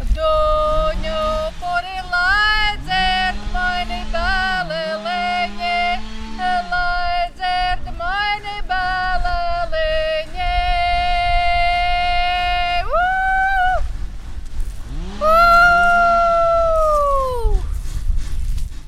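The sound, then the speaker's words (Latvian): High, piercing calling voices of women from a Latvian Academy of Culture traditional singing group hold long notes and swoop up and down in pitch, layered over lower sliding tones and a steady rasping buzz of saws running continuously underneath, during a volunteer work day clearing the surroundings in Latvia. “Zāģu skaņām mijoties ar Latvijas Kultūras akadēmijas tradicionālās dziedāšanas grupas saucējas balsīm, pirmās kultūra talkas laikā uzsvars likts uz apkārtnes sakopšanu, lai purvīša zēnības laiku ainavas atklātos ikvienam, kurš atbrauks uz vecjaužiem”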